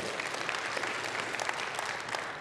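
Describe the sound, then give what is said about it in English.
Sustained audience applause for a choir, a dense, steady patter of many hands clapping at even loudness throughout, with no voices standing out. “By the way, let's give it up for that choir real quick.”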